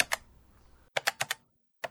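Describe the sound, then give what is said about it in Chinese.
Crisp clicks of computer keys being tapped: one lone keystroke, a quick run of four, then another after a pause. Sharp and moderately loud, with no talking. “内海勋敲击了一下键盘，画面动了起来。”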